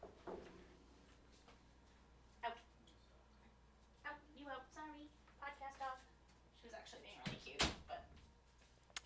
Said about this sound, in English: I'm gonna shut the door.